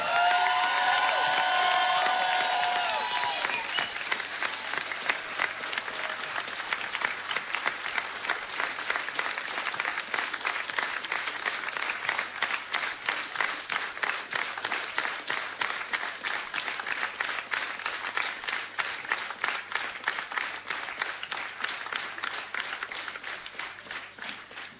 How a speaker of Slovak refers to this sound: sála v kultúrnom dome v Trstenej stojí na nohách tancuje a tlieska, to je veľký zázrak. Oslava Boha postavila ľudí na nohy, tak to si naozaj zaslúži jedno veľké, veľké poďakovanie a potlesk všetkým.